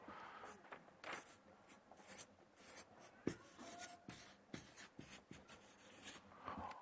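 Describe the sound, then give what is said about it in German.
Pen or pencil scratching across paper in quick, irregular strokes with brief pauses and small taps, fairly quiet, with no talking. “hier könnt ihr herkommen und dann aufschreiben, was mit dem Fremden was ihr gehört habt, was man mit Fremden nicht tun soll.”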